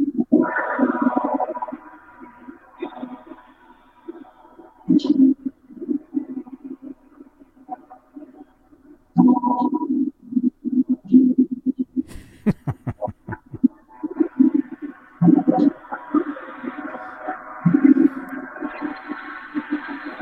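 A gong is struck repeatedly, its deep booming hum swelling and fading between strikes, sounding muffled and distorted as if heard underwater, with no voices.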